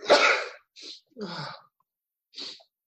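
A loud, close sneeze bursts out, followed by a few softer breathy snorts and sniffs in quick succession, then a final short puff after a pause. No talking.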